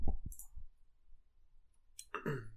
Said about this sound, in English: oh, ah, yeah, it's that fucking chair, man. You can hear that fucking chair, man.